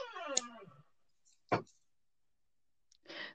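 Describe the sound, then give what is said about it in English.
A creepy door sound effect: a creaky door groans open with a falling, drawn-out squeal, then a sharp latch click follows, and a brief rattling thud closes it out. Fairly quiet, with no voices. “That was just a creepy door sound effect, guys.”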